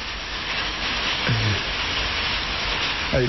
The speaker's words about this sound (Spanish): Eh, sí, granizo. Está granizando. Opa, está granizando lindo. No sabes el ruido que hay. Está cayendo aceitunas. Sí, yo no sé si se escucha afuera, yo escucho un ruido enorme acá.